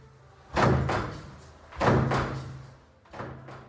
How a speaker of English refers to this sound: At which point, we're going to need a revolving door sound effect.